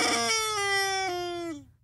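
A squeezed rubber toy chicken lets out one long, loud, nasal squawk that holds steady for about a second and a half, then sags in pitch and trails off, heard on its own.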